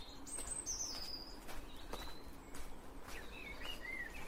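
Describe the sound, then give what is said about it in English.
Several songbirds chirp and whistle at once in an outdoor dawn chorus during an early morning walk in a cold snap, before the first buses run, high bright calls overlapping over a steady low background rumble, with no one speaking. “you can hear that dawn chorus.”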